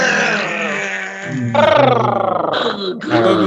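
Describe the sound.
A person growls like a dog, a loud, rough, sustained rumble that shifts pitch and intensity in a few surges over several seconds, with no clear words.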